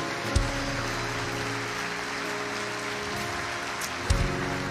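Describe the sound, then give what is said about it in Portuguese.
An audience gives a strong round of applause to Jesus in a dense, steady wash of clapping that fills the whole stretch, with low sustained tones humming underneath and a couple of brief low thumps. “Dê um forte aplauso a Jesus nesse lugar.”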